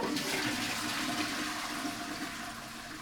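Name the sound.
toilet flushing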